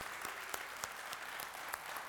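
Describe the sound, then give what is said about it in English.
A roomful of people clapping and applauding together for a newcomer who has been asked to stand, a dense steady patter of many hands with a few sharper claps standing out. “Yeah, clap for Miss Grace.”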